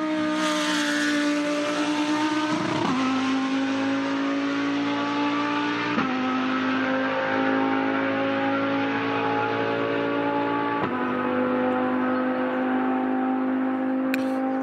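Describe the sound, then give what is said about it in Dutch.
A Lamborghini Huracan GT3 race car, driven by Lamborghini racing driver Jeroen Mul, roars loudly and steadily, its engine pitch climbing through the gears with sharp dips at shifts around every three to five seconds. No one speaks. “Hij is coureur bij Lamborghini en hij rijdt in de Huracan GT3.”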